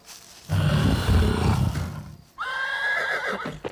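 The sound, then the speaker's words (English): A frightened horse carrying a rider shies and whinnies in alarm: a loud, rough snort and bellow followed by a high, shrill neigh that wavers and trails off, with no talking. “But I had not reckoned on the horse. The animal scents me. It shies in fright and tries to save its rider or itself.”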